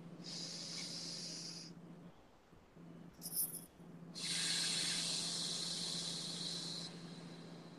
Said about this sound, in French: Alors, on va faire une respiration ensemble.